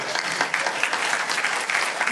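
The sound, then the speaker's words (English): An audience applauds steadily, a dense wash of many hands clapping at moderate loudness with no pauses, sustained for the whole stretch without talking over it. “I don't know why you're applauding if you can't hear.”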